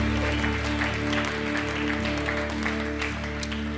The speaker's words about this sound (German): Lasst uns doch noch mal einen Applaus geben für alle, die diese Entscheidung getroffen haben.